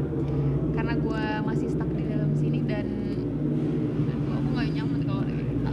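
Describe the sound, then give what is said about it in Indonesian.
A motorcycle engine runs loudly and steadily throughout, a low droning idle as it warms up, with people talking over the noise. “iya masa motornya suaranya keras banget ya iya kayak dipanasin kayak manasin dipanasin motor bawang nih”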